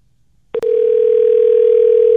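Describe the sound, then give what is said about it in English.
After brief silence, a click on the line gives way to a steady, unbroken telephone dial tone that holds loud and clear to the end, with no voices. “All right, let's get into this phone call”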